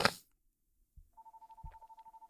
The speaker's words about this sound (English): Bitch, what the fuck is that? Oh, it's a real phone, like a, a landline.